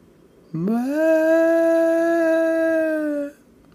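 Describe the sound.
A voice imitates a child's wave-like wailing cry: one loud, drawn-out "aah" that swells up in pitch and then holds steady for about three seconds before stopping.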